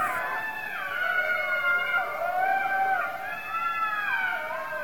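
A pack of jackals howling together in the evening in front of a village, several high, wavering wails overlapping and sliding up and down without pause, over a steady background hiss.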